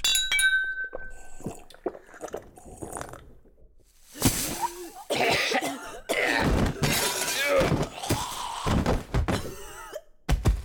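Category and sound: household object, cups clinking together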